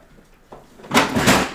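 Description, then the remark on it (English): A drawer is yanked open: a brief rattle, then a loud, rough scraping slide with a jolting clatter as it nearly comes free and is almost dropped, lasting about a second, no voices. “Almost dropped my drawer.”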